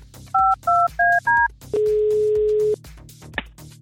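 A radio host on The Voice dials a listener in a Christmas song contest: four quick, evenly spaced telephone keypad tones, then a single long steady beep as the call connects, all loud over a quiet music bed.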